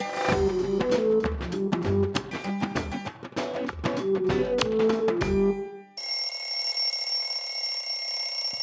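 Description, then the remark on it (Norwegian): A bright electronic alarm clock melody plays loudly for about six seconds, then cuts to a steady, shrill high-pitched ringing that continues to the end, with no one speaking. “Pleier du å våkne til språktegn på søndager? Da må du stille alarmen tidligere”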